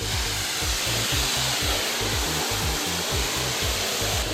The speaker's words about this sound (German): Zu hören ist da allein das Ballern des Hochdruckreinigers und der Klang des Wassers.